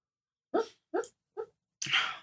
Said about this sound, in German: Okay, falls gerade jemand damit, komische äh, Geräusche äh, gehört hat, mein Hund träumt gerade.